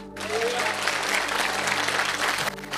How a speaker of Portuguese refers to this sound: Pode aplaudir o Senhor.